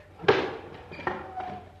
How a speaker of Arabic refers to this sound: انتظر حتى أفتح الباب